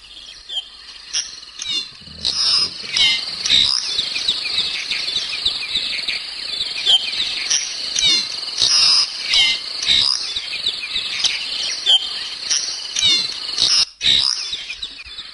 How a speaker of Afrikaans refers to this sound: Hierdie is die geluid van die bekende klein streepswaal, die bekende voeltjie op 'n stoep wat elke jaar terugkom.